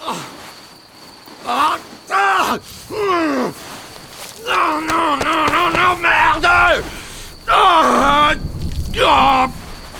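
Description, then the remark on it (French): A man who has just been struck by a vehicle cries out in pain over and over, loud strained howls and groans that rise and fall in pitch, some short, one long and drawn out, with a faint steady hiss behind. “Un homme hurle à la mort.”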